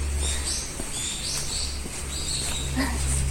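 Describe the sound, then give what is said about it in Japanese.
Birds chirp and tweet in quick, overlapping high calls outdoors in the morning on a sunny, cold day, fairly faint against a steady low hum of background noise. No one speaks. “今日も鳥が鳴いてますね。”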